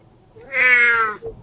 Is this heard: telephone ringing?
no